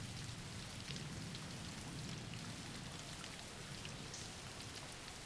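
Steady rain falling without a break, a dense even patter of drops on a surface, with a soft low rumble underneath. It stays at a constant moderate level throughout, with no voices.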